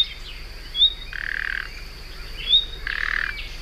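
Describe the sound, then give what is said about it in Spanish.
A common nightingale's alarm call, known in Spanish as the silbarronca, given twice: each time a short, thin rising whistle followed by a low, harsh, croaking rasp, over a faint steady hum with no voices. “El reclamo del ruiseñor común se llama la silbarronca.”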